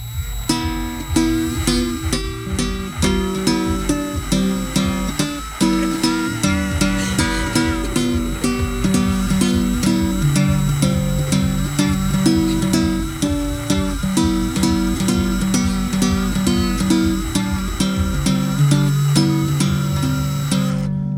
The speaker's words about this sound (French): en passant, vous allez entendre le bruit de la perceuse.